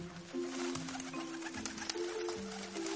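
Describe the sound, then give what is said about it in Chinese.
A bird coos in low, steady, droning calls as it flies in, repeating and overlapping for about three seconds, moderately loud, with a faint rustling hiss underneath and no talking. “突然，一只鸟儿飞了过来。”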